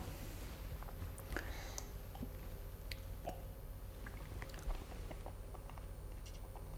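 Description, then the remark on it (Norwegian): Crunchy chewing of burnt bread crusts, with irregular sharp crackles and softer squishy bites over a steady low hum, and no one speaking. “Ja, altså brent brød. Altså, det, det er, ja, ja, det er sånn altså, mm. Sånn brente skorper eh, ja.”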